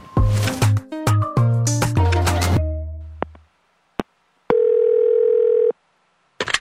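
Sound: telephone dial tone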